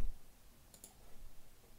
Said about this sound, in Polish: Jak ja tu kliknę, to będzie dobrze.